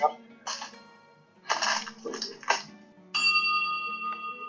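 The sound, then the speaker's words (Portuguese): A small bell rings out clearly near the end, its bright metallic tone lingering and slowly fading, after a few short bursts of rustling and voices in the background. “Você não ouviu o sino?”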